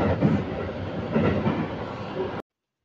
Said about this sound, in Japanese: 電車の中での収録は、あの、お聞き苦しかったかもしれないですね。雑音が多かったので、えー、申し訳ありませんでしたけれども